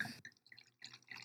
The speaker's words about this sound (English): That's the sound of me. That's the sound of me pulling up a glass of wine right there. I got me a nice little hefeweizen